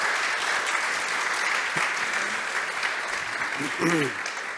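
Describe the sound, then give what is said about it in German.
Steady applause from an audience at the end of a talk, a dense wash of clapping that holds at an even level throughout, with a few brief voices rising faintly beneath it near the end. “Wir können jetzt nochmal klatschen.”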